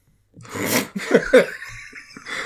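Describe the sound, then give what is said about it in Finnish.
A harsh cough bursts out, followed by a couple of shorter raspy coughs and some throaty breathing, moderately loud with no talking over it. “nyt sä yskiskelet tossa, että jos sä puhut alle satkun ihmisistä.”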